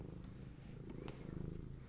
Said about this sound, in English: Oh, Higgins says purr purr purr. Higgins love strikes.